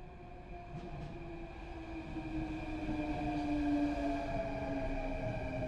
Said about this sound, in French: lorsque le métro arriva enfin, jaillissant du néant comme, euh, comme un rugissement euh, illuminant le silence de ses feux